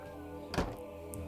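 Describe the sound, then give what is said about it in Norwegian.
A single dull thunk of a door shutting, short and solid, followed by a faint small click against a quiet background hum. “La, la, la, meg gå gjennom den berømte døren først, og komme i, i, riktig modus.”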